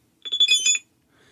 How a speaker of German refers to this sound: Der Message-Sound von, von Cyberpunk, vom Cyberpunk-Game.